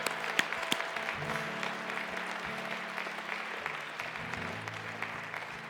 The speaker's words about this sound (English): Come on, give the Lord a big hand clap and shout. Come on.